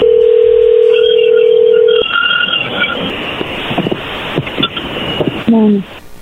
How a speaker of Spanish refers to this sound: le va a llamar el lobo, no haga ruido, ahí se está marcando